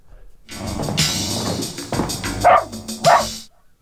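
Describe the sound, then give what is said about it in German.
A black-and-white cocker spaniel, blind in one eye, barks a few times, with two sharp, loud yaps standing out near the end over a dense, busy background of other sound. “Schwarz, weißer Cocker Spaniel auf einem Auge blind.”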